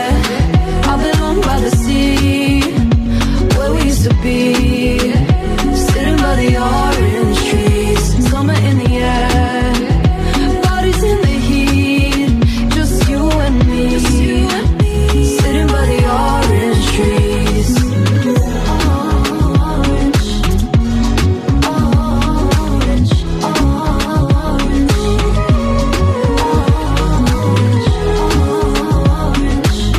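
A bright pop song with a woman singing lead over a full, steady band arrangement, playing loud and continuous from start to finish.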